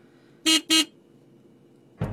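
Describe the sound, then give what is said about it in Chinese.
A new-model sedan is driven around a test track to test its brakes: its horn honks twice in quick succession, two short, loud, even beeps, followed after a pause by a sudden rough burst of vehicle noise. “他要试试新型轿车刹车灵不灵，人家就让他在试车场上开两圈。”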